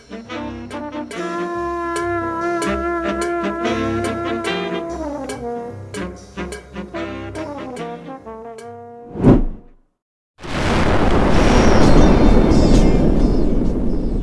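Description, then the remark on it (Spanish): After a melodic plucked-music passage and a brief whoosh, a moment of silence gives way to a loud, steady, rushing roar of an underwater volcano erupting deep in the South Pacific Ocean, a submarine explosion, continuing to the end. “desde lo profundo del Océano Pacífico Sur, hizo erupción un volcán submarino, pero no fue una erupción cualquiera.”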